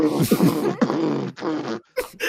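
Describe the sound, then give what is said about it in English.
A voice imitates a ship exploding with a run of loud, sputtering, breathy mouth noises: three or four rough bursts in quick succession, cut by brief pauses. “Detonation as the ship just noises. explodes all over the place.”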